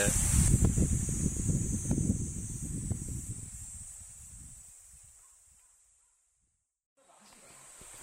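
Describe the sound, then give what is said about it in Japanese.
A waterfall pours down between rocks beside a huge cliff face at the entrance to a limestone cave in a karst plateau, in a steady, hissing rush, loud at first and then fading almost to silence before returning, with a thin, high buzz of chirping cicadas running above it. “えー、巨大な今岸壁が目の前にありましてセミが鳴いてますねで、えー、岩の間から滝が流れ落ちておりますなかなかの景色ですね”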